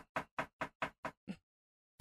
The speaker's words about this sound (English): Okay, so let's jump back to Boca Raton, Florida, and this badass detective, Detective Edwards, goes a knocking on Mr. Howard Elkins' door.